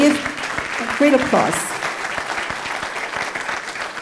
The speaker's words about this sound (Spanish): ¿Puedes darle ese fuerte aplauso?